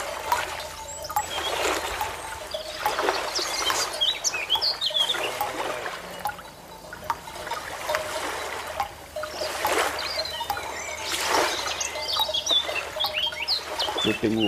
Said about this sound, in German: Birds.